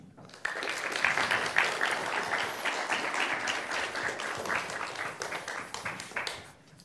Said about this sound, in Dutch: rest mij nu eigenlijk niets anders dan te vragen om een heel warm applaus